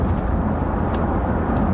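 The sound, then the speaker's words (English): Steady, loud rumble of a CLS car's engine and road noise as it drives past, a continuous low roar with no talking that holds at an even level from start to finish. “Um, hey, there's my car again. Actually, that's a mess, isn't it? That's a CLS.”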